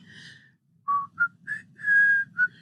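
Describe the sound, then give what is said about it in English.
A short whistled melody of about six clear notes, some quick and one held longer, rising and falling in pitch, with a soft low murmur underneath and no talking. “I, I, I, I, like we actually we actually wrote the song behind behind your little thing, your little whistle.”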